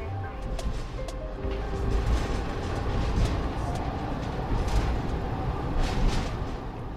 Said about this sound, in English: the local train to get there is just one car long, with velvety green and yellow seats.